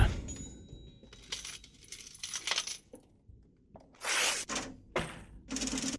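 Metallic coins clink and jingle in a series of bright, sharp bursts, rattling and spilling with brief pauses between them, opening a rock track.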